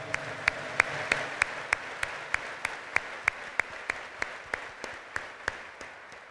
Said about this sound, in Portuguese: Colhemos também as religiosas, ministros do altar, da palavra, do canto, acólitos, a sua romaria, a juventude missionária redentorista, você que está aí em casa, com aquela salva de palmas calorosa, fraterna.